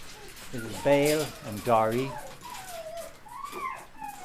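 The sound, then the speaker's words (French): Dogs in a kennel give two loud, drawn-out barking yelps, followed by thin, high whimpering whines that rise and fall more quietly. “Uh, uh, vous vous ferez peut-être aboyer dessus.”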